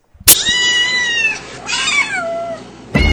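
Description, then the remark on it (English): A cat meows twice in quick succession, loud, each call a drawn-out, wavering cry with bright harmonics, followed by a sharp burst of noise at the end. “before we get out of here, let's go through the stat cat.”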